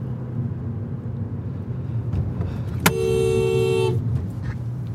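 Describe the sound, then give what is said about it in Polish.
A car horn blares once for about a second, a steady bright honk from a passing car that nearly drives into the person recording, over the continuous low rumble of the vehicle and road noise. No one speaks. “no byłby pan we mnie wjechał.”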